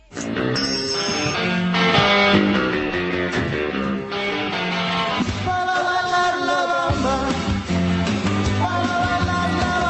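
Tennis player Rafa Nadal sings karaoke loudly over a full, steady backing track in a video made by French television, his voice strained and continuous for the whole stretch with no pauses.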